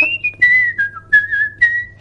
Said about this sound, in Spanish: Es mi intención, sí, incorporar el silbido en, mi música.